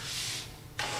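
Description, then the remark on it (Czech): A broad scraping, rubbing noise of a computer case being slid across a surface, pausing briefly before a second louder push, with no talking. “Já, se teda, já to teda trochu posunu.”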